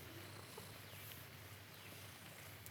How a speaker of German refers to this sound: Was sich hier so komisch anhört, dieses Schnurren, ist die Katze, die hier gerade auf meinem Schoß sitzt.